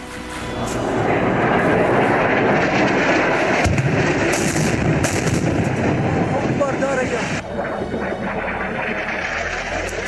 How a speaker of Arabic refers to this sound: يا الله يا الله يا الله ما عرفت مشى توصف الطيران الحربي يا الله